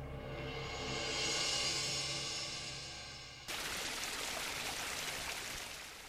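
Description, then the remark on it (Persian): The rushing water of a waterfall about 20 metres high roars steadily, starting midway after a few seconds of a humming, tonal wash. No one speaks. “رسیدم دم اون آبشار اولین بار که نگاش کردم واقعا 20 متر بیشتر ارتفاع نداشت دوروبرم نگاه کردم جز پریدن مسیر ساده تری هم وجود نداشت ولی وقتی برای بار دوم پایین رو نگاه کردم حس کردم هرچقدر نگاه کردن من طولانی تر میشه ارتفاع اون آبشار هم زیادتر میشه”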